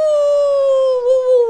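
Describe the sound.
A voice imitates the howl of the big bad wolf while telling a children's story, holding one long, steady, slightly falling note with a slight waver near the end, loud and alone with no other talk.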